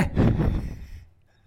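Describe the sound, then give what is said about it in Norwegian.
A heavy breath from a speaker whose mouth is too close to the microphone rushes straight into it, a dense, muffled gust lasting about a second before fading into near silence. No one speaks. “Og, og vi ligger litt for nært munnen med nå. Blir litt mye pust her.”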